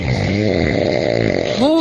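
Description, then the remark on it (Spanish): A voice imitates a husband's loud, heavy snoring, a rough, rattling, pig-like grunt held continuously for about two seconds, ending in a rising voiced snort. “Carmen ha dicho que se va a ir a dormir a otra habitación porque su marido ronca de esta forma”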